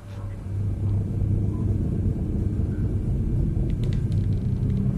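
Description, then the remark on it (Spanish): A steady, low droning rumble fills the whole clip, a dense bass hum with a faint pulsing undertone and a few thin high clicks flickering above it near the end. It is a sound-design drone added to a dramatized scene. “introduzco un dron sonoro que definitivamente marca el pulso de la historia.”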